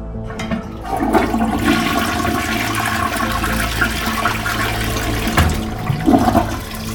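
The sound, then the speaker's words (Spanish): A toilet flushes loudly, a steady rushing swirl of water that fills the whole stretch with a brief gurgling surge near the end. No one speaks. “La de la ducha, el trapeador, los trastes y por supuesto el inodoro.”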